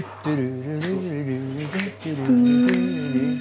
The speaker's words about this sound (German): Ich warte noch auf diese Klingel. Da gab es immer so eine... Ich suche gerade schon.